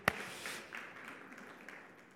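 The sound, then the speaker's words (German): An audience applauds itself, clapping together in a dense, steady patter of many hands, starting with a sharp burst and then continuing at a moderate level for a couple of seconds without voices. “Applaus für euch.”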